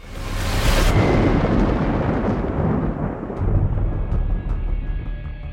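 A thunderstorm with a loud crack of thunder that rolls into a long, deep rumble, sustained throughout with some faint crackling on top and no voices.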